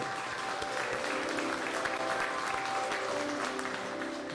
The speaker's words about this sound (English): And if you're happy to be here on Saturday, put your hands together so everybody in virtual congregation can hear you.